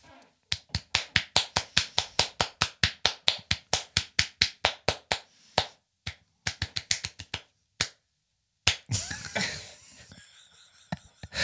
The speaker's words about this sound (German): Dann gibt es noch den Klatscher, wo man denkt, man ist sich noch nicht ganz sicher, ob der gerade klatscht oder sich selbst befriedigt.